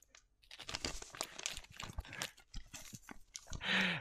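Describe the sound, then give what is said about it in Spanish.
Crisp crinkling of a paper envelope from the PP, a dense run of rustles and crackles handled in ASMR style, with no speech, swelling into a louder, brighter crumple at the end. “Eh, así es como suena la del PP.”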